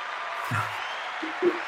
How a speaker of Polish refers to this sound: Tak, mamy efekty dźwiękowe, ale to krótkie oklaski, ponieważ tematów jeszcze trochę yy, mamy.